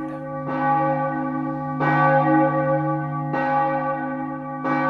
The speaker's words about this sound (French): Walt sait que les cloches ne jouent que pour lui parce que Peter, le pasteur, a bloqué le compteur de l'horloge de la petite chapelle exprès pour qu'elle sonne le soir de Noël.